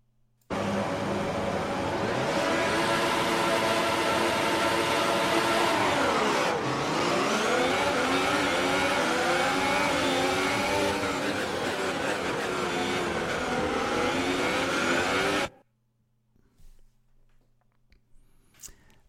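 A racing car engine screams loudly and continuously, its pitch climbing, then dropping and rising again through gear changes before winding down and cutting off abruptly, leaving quiet.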